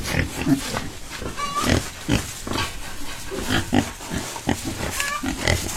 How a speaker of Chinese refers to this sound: 这是小猪的声音。